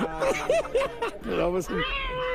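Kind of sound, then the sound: animal, cat meowing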